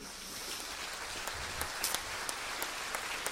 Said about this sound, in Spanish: O sea que un aplauso para ellos también.